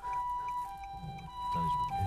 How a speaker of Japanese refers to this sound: 救急車が通るな